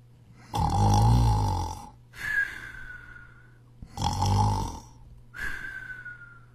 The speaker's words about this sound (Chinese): 早上，小蜗牛被一阵呼噜声吵醒了，原来是蟾蜍大叔在旁边睡觉呢。